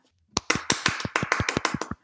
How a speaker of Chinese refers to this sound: 嗯，好厉害！我觉得咱们好久没鼓掌了，应该鼓次掌。